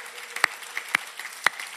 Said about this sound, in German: Vielleicht können wir uns gegenseitig noch einmal einen Applaus geben.